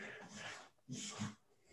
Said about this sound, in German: Hund, du störst meine Aufnahme. Danke.